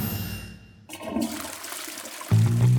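A toilet flushes: a sudden hiss of rushing water that swirls and gurgles, then swells into a louder, deep roar as the bowl drains. No one speaks.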